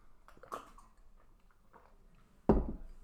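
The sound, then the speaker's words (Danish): Someone drinks water, with soft wet mouth sounds and a few quiet gulps, then one louder, sharper swallow near the end. No one speaks. “Ej, hvor var det rart for første gang i flere timer at få noget vand og ikke noget koldioxid.”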